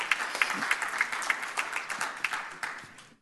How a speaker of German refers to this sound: Ja, begrüßt ihn mal mit einem herzlichen Applaus.